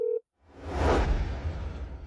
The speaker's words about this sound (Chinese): 白婉玲挂断电话之后，找到通讯录，拨通杜兴武的电话。